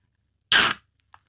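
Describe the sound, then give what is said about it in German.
A can of lukewarm Ottakringer beer is cracked open: one loud, sharp burst of fizzing hiss lasting about a third of a second, followed by a faint little click. No one speaks. “Ich habe dir, ich hab dir extra eine Hüsen mitgebracht.”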